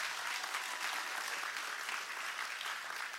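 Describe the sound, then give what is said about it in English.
Steady applause from an audience for a speaker who has just shared his story fills the whole stretch, a dense, even patter of many hands clapping at once, sustained without pause and fairly loud. “Can we give it up one more time”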